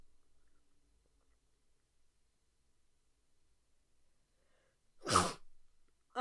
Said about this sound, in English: If y'all would please excuse my sinuses or whatever's going on because I'm about to sneeze.